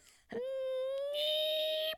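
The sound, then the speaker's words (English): A single voice mimics a firework: a steady, sustained whistling tone held for over a second, joined midway by a breathy hiss before cutting off abruptly. “How do you make a firework? Noise?”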